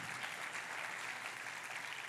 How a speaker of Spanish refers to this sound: Dale ese fuerte aplauso Give al a strong round of applause to God.